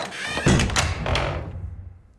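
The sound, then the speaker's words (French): A heavy wooden door, secured by a huge plank and a latch, unlatches and swings open: a deep thump, then a couple of sharp metallic clicks and a creaking scrape that fades into an echo. “La lourde porte en bois était protégée par une immense planche et un loquet.”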